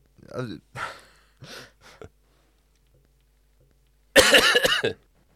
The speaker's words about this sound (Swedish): Så låter den. Covid-hostan. Vidrig är den.